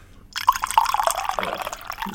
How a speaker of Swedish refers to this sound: Nu, nu häller Tony upp kaffe bara för att vara irriterande.